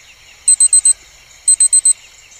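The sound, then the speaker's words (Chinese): A troublemaker detector alarm goes off, signalling that the troublemaker fox is nearby. It sounds two quick bursts of four sharp, high-pitched electronic beeps each, loud and evenly spaced, with a faint steady tone underneath and no talking. “捣蛋鬼探测器响了。那么捣蛋鬼狐狸就在这附近啦。”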